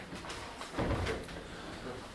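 A door swings shut with a soft, dull thud about a second in, against low background noise with no one talking.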